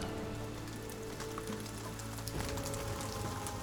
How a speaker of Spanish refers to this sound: Cuando Su Shi creó letras para el tema Calmar la tormenta, no escuches el golpeteo de la lluvia sobre las hojas.